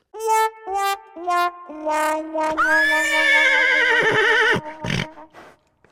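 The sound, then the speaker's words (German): A horse whinnies loudly, a series of quavering, rising neighs building into one long shrill call, followed by a brief snort-like burst near the end. “Nein, aber es kann nicht mehr lange dauern. Sein Pferd ist schon da.”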